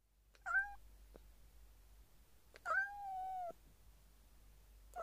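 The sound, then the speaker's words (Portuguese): A cat meows twice, a short meow followed a couple of seconds later by a longer, drawn-out one, both clear against a quiet background with no talking. “Oh, oh, você é um gato! Mestre gato!”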